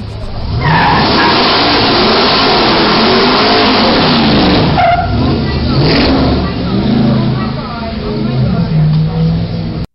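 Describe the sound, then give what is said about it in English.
Car tires skid and squeal loudly over a roaring engine in a video, with continuous dense noise throughout; a woman's voice in the background, about as loud as the tires, is mixed into the commotion. “there is always, without question, an annoying woman in the background who ruins the video. You could hear her here. It stands out. It's as loud as the tires.”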